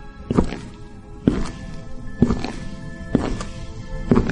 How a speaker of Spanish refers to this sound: Tan pronto vuelvo a escuchar sus pisadas sobre el suelo de madera.